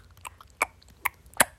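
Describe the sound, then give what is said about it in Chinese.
Wet chewing noises made with the mouth, a few sharp smacking clicks spaced irregularly, the last one loudest, with no talking. “你这样一直嚼它，一直嚼它，什么意思啊？”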